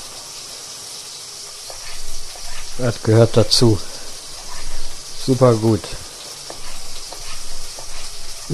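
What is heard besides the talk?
food sizzling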